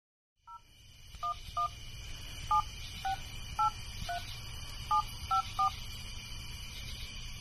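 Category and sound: signal or alarm, telephone number being dialed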